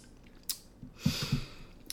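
Sipping of an IPA beer: a soft slurp, then a quick run of three or four wet gulping swallows, quiet and with no talking.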